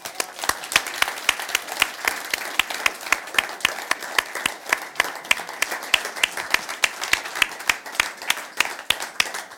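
Steady audience applause fills the whole stretch, a dense mix of many hands clapping with sharp, crisp claps standing out in a fairly regular rhythm, moderately loud throughout with no talking.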